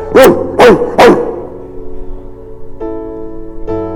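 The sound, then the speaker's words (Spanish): A person imitates a pitbull barking, three loud, gruff woofs in quick succession, followed by quieter vocal sounds and background murmur. “Sí, porque si voy a imitar a un perro, no voy a imitar a un chihuahua, imito un pitbull.”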